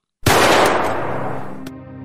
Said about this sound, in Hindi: उसकी सबल भुजाओं ने बंदूक तान ली और उसकी सदी हुई उंगलियों ने बंदूक का घोड़ा अपनी ओर खींच लिया